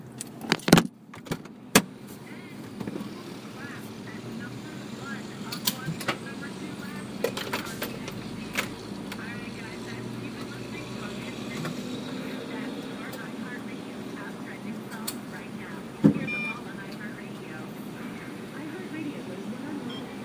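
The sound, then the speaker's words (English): A car being refuelled at a gas station: a burst of metallic clicks and clatter at the start, then a steady low hum with scattered knocks, faint jangling and a sharp clunk near the end. “Oh, gas is done. Hold on. I'll be back.”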